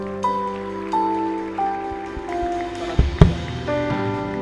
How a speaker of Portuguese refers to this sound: Aplauda ao Senhor.